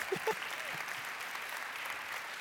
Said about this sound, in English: Go ahead, clap. It's good.